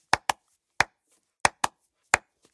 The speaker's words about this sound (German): Ja, ja auch so diesen Double Clap, dieses.